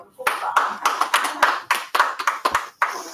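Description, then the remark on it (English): A single person claps about a dozen times over a few seconds, sharp and fairly loud, in a quick, slightly uneven rhythm with brief pauses between some claps. “Why is no one else clapping? I was clapping.”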